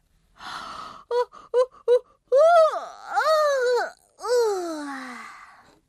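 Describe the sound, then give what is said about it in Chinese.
A voice imitates a big, exaggerated morning yawn by a boy named David: a breathy intake, a few short choppy sounds, then long drawn-out moaning tones that swoop and slide downward in pitch, fairly loud with no talking. “到了早上，戴维打了一个大大的哈欠。”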